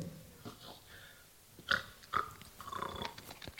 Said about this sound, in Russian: ну хватит храпеть.